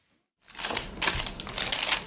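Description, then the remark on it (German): After a brief silence, papery rustling and crinkling begins as a 48-year-old businesswoman leafs through a stack of receipts, mixed with quick light clicks as she taps numbers into her calculator, continuing in uneven bursts with no voices. “blättert durch einen Stapel Quittungen, tippt Zahlen in ihren Taschenrechner ein.”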